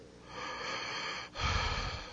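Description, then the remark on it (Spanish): A man draws a long, rasping breath, pauses briefly, then gasps again more forcefully, the heavy breathing loud with no talking. “Siga respirando, jale el aire.”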